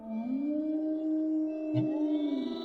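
A dog howls at a door in a long, sustained, wavering tone, with a second howl rising in partway through, the voices overlapping and carrying on steadily without any talking.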